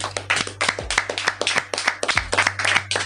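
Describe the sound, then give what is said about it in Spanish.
An audience applauds, many hands clapping in a dense, overlapping patter that stays fairly steady for about three seconds, with a low electrical hum running underneath. “Ustedes son los mejores, y deseen un aplauso a todos por lo que hicieron.”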